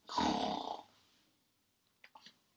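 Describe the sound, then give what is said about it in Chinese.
A single loud, rough snoring sound, voiced in imitation of three sleeping kittens in a children's counting rhyme, lasting under a second, followed after a pause by a few faint short clicks. “三只猫咪仔阁咧困，六只猫咪仔旋走去呀，三只猫咪仔呼噜噜。”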